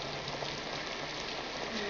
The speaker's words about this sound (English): It's raining pretty hard.